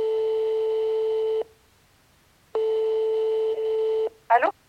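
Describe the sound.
A telephone ringback tone for an outgoing call to a frontline worker on the 26th day of lockdown: two steady, long two-tone rings separated by a silent pause, then a voice briefly begins to answer at the end.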